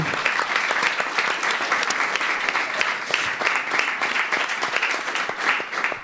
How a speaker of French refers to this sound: Et enfin, bien sûr, un grand merci au Tank et au Chaïf pour nous avoir bien nourris et accueillis. On peut les applaudir.